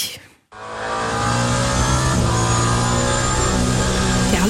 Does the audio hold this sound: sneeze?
no